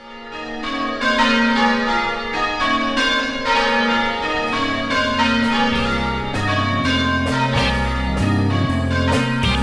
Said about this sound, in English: Now I hear the bells calling me to church.